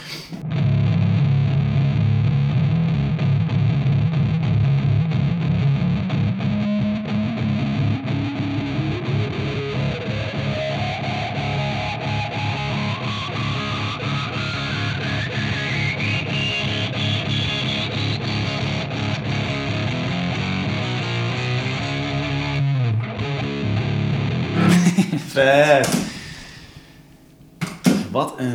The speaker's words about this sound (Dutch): En deze, dit is met meerdere octaven. laag en hoog. En dit is dus zo'n filter.